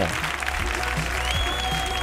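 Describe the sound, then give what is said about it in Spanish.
Studio applause on a morning show welcoming guest Carlos Telmo: a dense, steady wash of many hands clapping at an even level for about two seconds, with no clear break or build. “Qué emoción estar aquí, por Qué emoción, un aplauso para Carlos Telmo.”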